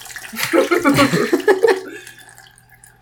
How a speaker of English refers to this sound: Are we are we pouring out our fixer? I've already done that.